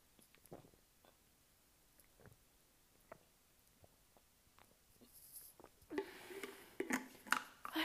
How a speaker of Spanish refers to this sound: Déjenme tomar agua.